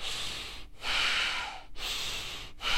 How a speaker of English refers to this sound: Panting breath. Now, panting breath can be done like this or it can be done slow.